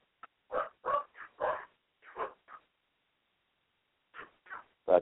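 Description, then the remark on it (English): Dogs bark excitedly in quick, irregular bursts, a flurry of yaps, then a short lull before a few more barks. They are moderately loud, with no talking. “The dogs are going crazy.”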